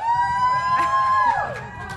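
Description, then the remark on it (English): A live audience at the Bon Appetit Foodcast recording at Feast Portland cheers steadily for about two seconds, a dense wash of crowd noise topped by a sustained high whoop that slides downward near the end. “You were supposed to cheer.”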